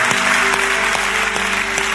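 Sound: audience applauding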